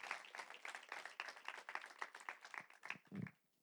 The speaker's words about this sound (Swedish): Det är så fantastiskt kul att få stå i det här arbetet och jag vill att ni ger min fru en jättestor applåd som ska också ta del och undervisa en liten stund för er.